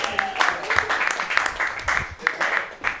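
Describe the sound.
At a comedy show, an audience breaks into steady applause, many hands clapping in a dense, crackling wash that holds fairly loud for the whole stretch, with a few voices faintly mixed in.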